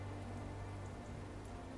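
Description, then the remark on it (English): Steady rain patters on the tin roof of a tavern in a soft, continuous wash, with a few brighter drops plinking now and then. No voices, just the even hiss of rainfall. “Overhead, the rain plinked, plinked, plinked, plinked against the tin roof, creating a melody that was utterly soothing.”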